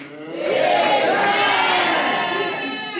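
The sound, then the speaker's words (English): A crowd erupts in loud, sustained shouting and cheering, many voices rising together in a roar that holds steady for a few seconds before easing slightly. “People of God shout it on those”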